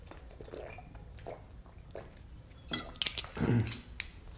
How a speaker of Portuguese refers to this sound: Ó, eu vou tomar uma água.